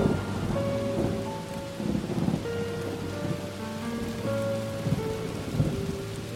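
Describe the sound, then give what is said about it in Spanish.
Heavy rain from a summer storm in Europe pours down steadily in a dense, continuous hiss, with low rumbles of thunder rolling beneath it throughout, the storm sounding full with no voices present. “Lo que pensábamos que era una simple tormenta de verano se convirtió en el comienzo del diluvio universal.”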